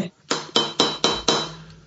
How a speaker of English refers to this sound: this is the sound of a gavel.